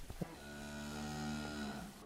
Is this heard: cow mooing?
yes